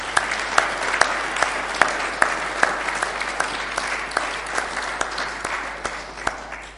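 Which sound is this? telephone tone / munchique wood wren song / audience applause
audience applause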